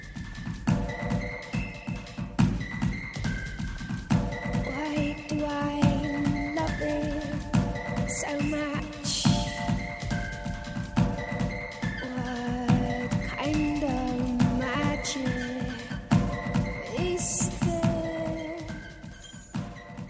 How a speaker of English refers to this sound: As you can hear, it starts with a hip hop beat made up of the sounds Selma hears in the room squeaking shoes and pencil taps.